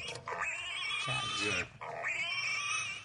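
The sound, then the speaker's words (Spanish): High-pitched piglet squeals and oinks used as a refrigerator alarm that sounds when the fridge is opened, two long shrill bursts with a short break between them, loud and strained, with no talking. “Pero ahora la mamá eh, le puso unos lechoncitos.”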